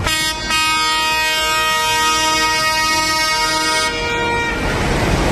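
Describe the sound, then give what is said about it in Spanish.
A loud, steady horn blares for about three seconds over a low engine rumble, then cuts off, leaving rough engine and traffic noise as around thirty farmers' protest tractors push forward, trying to reach the Paseo del Espolón in central Logroño, La Rioja, Spain. “Es el sonido del momento en el que los tractores intentaban acceder al Paseo del Espolón, donde está la sede de la delegación del Gobierno, también del Ejecutivo Autonómico”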